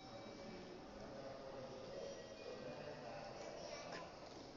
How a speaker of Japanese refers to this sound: うん、向かうぜ向かうぜ、うん、これから、電車乗ります、うん、よし